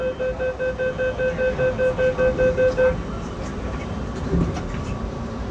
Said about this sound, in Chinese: 我有的时候看东西看累了，我会闭上眼睛，站在那儿去听这个地铁运转的声音。然后你在听这个地铁运转的声音的时候，就难免会听到一些人的对话呀，或者什么的。